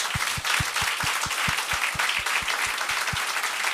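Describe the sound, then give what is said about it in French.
Sustained audience applause, a dense wash of many hands clapping with a steady, low rhythmic thump underneath, moderately loud throughout with no voices, welcoming two guests of a show. “j'aimerais ça qu'on leur donne bonne main d'applaudissement.”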